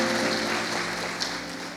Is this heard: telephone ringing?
no